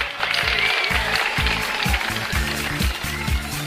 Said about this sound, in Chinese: 感谢各位热情的掌声啊！